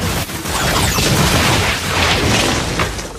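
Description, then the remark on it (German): A loud explosion bursts out and rumbles on with a dense crackling roar for about three seconds, as a powder-filled tobacco pipe blows up, with no voices. “Rums! Da geht die Pfeife los. Mit Getöse schrecklich groß.”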